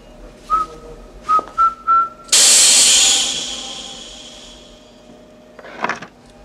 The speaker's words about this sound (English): Now, Whistle the first bars of Rule Britannia.